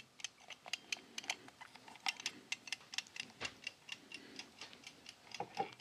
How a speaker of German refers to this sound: Dann würde ich mal als erstes unseren Protagonisten Nummer 3 stellen. Unsere Eieruhr.